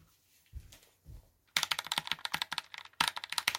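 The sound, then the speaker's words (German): Rapid, crisp typing on a new Roccat Vulcan TKL Pro computer keyboard starts after two soft low thumps, a dense run of clacking keystrokes with a brief pause before the bursts resume, fairly loud with no talking. “Oh, Maschallah, ist diese Tastatur geil, Digga.”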